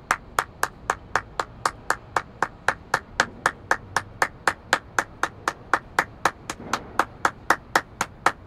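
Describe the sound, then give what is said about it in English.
A group claps hands together in steady unison, a long run of sharp, evenly spaced claps at a brisk tempo, clear with no talking. “Everybody clap your hands.”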